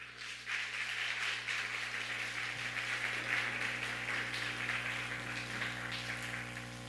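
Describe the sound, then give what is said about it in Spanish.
A steady burst of applause for the host's wife at a Shabbat morning gathering, many hands clapping in a dense, crackling wash that holds for several seconds before easing slightly, with a low constant hum underneath and no voices. “Ah, den un fuerte aplauso a mi esposita.”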